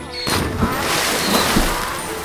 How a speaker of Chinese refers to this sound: 于是这一回，驴子故意过河的时候，假装踩了个空。把自己和货物都摔进河里。